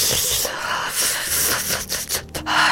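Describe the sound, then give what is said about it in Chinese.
A person imitates a cat's contented purr, making a breathy, raspy rumbling sound that runs steadily for about three seconds with a few brief flutters and dips. “他会突然间做出奇怪的獰笑，就是很得意的，甚至呢会发出那种满意的呼噜声，”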